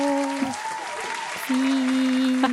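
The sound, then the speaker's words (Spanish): An audience applauds in a dense, continuous patter of clapping that stays fairly loud throughout, with a few steady sustained tones humming beneath the claps. “Aplausos.”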